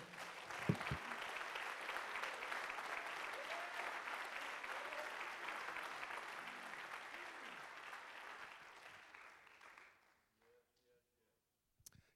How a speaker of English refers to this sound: Would you clap your hands to the Lord?